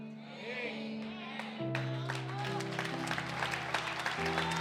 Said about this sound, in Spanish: Ponte en pie en esta hora, dale un fuerte aplauso al Señor.